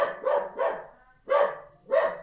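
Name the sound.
dog barking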